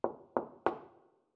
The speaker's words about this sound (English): you hear a door knock behind you.